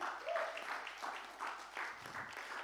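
An audience claps for Jesus together in steady, dense applause that swells and dips slightly over a few seconds, fairly soft overall, with a faint murmur of voices underneath.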